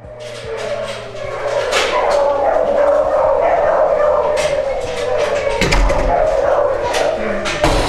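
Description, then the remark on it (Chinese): A laboratory beagle used for experiments, kept in a dim lab corridor, barks over and over in loud, sharp, irregular bursts for the whole stretch, with a steady high-pitched whine or yelping running underneath the barks. “实验室里，我见到了一只实验用的比格犬。”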